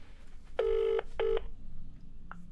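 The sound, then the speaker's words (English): A phone call to the speaker's dad ringing out: a steady, buzzy electronic ring tone sounds twice, a longer burst then a shorter one, over a faint low hum, with no voices. “So I'm gonna call him.”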